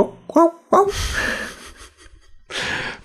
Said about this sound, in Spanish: Esto, esto, rollo, esto quítalo, ¿eh? Quita este ruido de, un perro ladrando.